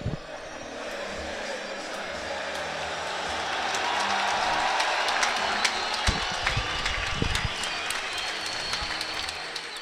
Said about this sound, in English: Yeah, big applause from the thousands of Scotland fans that are in here at the moment.